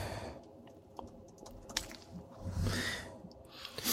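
Soft, irregular clicks and taps of fingers fiddling with a buzzer key, close and quiet, with a brief rustling swell midway and no talking.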